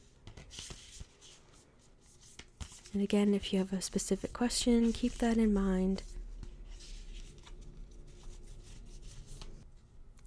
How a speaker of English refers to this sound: second card reading is coming from The Divine Feminine Oracle by Meggan Watterson. Just gonna give the cards a shuffle.